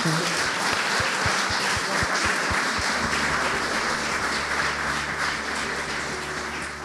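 An audience applauds steadily for several seconds after a lecture, a dense, even wash of clapping that stays fairly loud and eases off slightly near the end.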